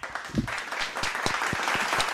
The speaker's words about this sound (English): Let me do a little hand clap. Where is it? This one.